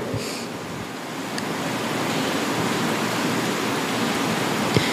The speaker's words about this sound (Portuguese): Chovendo? Olha. Que a chuva venha, né?